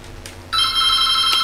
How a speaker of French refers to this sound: Nous avons le téléphone qui sonne.